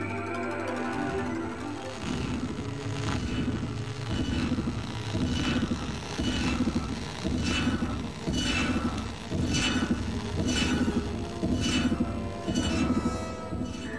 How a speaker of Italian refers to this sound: Quello che avete sentito è un messaggio radio di origine aliena captato da un radiotelescopio terrestre. È quello che succede nel film Compact.